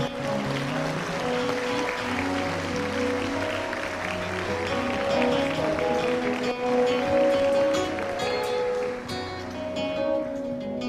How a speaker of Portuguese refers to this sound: Será que você pode aplaudir a Jesus essa manhã?